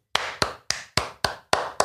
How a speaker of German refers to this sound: Und dann kommt, der äh, beginnt mit Klatschen ja. mit einem gewissen Klatschrhythmus